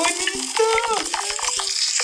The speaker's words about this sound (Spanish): Ajá, siento que es agua mezclada con otros tipos de sonidos que, no sé, está muy bonito. Siento que están lloviendo, no sé, güey.